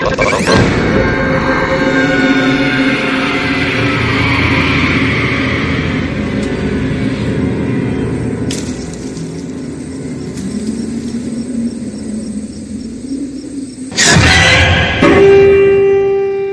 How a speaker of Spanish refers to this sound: Estamos escuchando el tráiler de la quinta película del día de hoy, la última, en este programa pues de sobre películas que hay que ver en Halloween. Se trata de Trick or Treat o Truco o Trato del 2007 de Michael Dougherty.